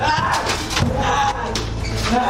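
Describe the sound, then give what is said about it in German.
A door in an escape room slams shut with a heavy thud, followed by a couple of fainter knocks and rattles over a dense, steady background rumble. “Ah, anscheinend, anscheinend nicht länger auf.”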